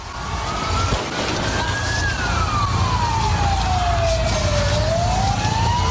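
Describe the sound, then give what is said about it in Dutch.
An emergency vehicle siren wails in a slow rising and falling sweep over the constant low rumble of street traffic in Barcelona after the Catalan independence referendum, steady and fairly loud throughout with no talking. “Dit zijn de straten van Barcelona.”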